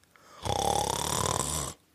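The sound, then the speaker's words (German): A single deep, rumbling snore from the Professor lasting over a second, loud, with a rough buzzing texture that swells and then cuts off into quiet. “Hört er auf einmal ganz laut, aber es ist nur der Professor, der einen tiefen Schnarcher getan hat.”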